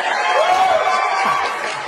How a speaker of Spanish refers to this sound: Un aplauso fuerte para recibir a Francisco Neri.